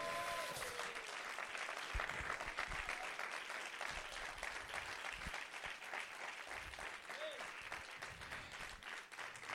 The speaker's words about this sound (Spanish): Dale un aplauso fuerte.